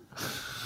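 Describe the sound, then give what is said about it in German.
A single short sneeze, a sudden breathy burst of air that sets in sharply and holds briefly as a soft hissing exhale, fairly quiet and with no talking. “Gesundheit.”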